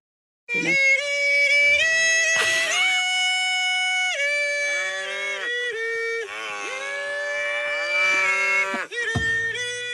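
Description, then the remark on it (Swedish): A high, piercing kulning, a Scandinavian herding call, from a single voice, held on long ringing notes with sliding pitch changes, loud, continuing almost unbroken for several seconds with no talking. “Uh, ja, det kular heter det. Man kular. Vi kör här lite, ni hör hur det låter.”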